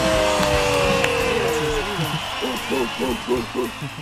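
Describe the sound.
Steady applause for a biologist fills the whole clip, a dense wash of clapping with voices rising over it, including a short run of repeated, evenly spaced calls near the end.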